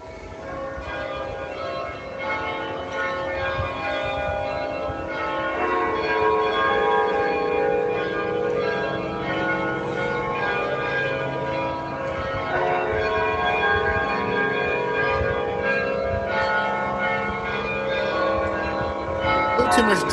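Bells of the tallest bell tower in the Netherlands, programmed to play rock guitar riffs, chime out a riff as a melody, the notes ringing with long sustain and blurring together into a steady, resonant wash from start to finish.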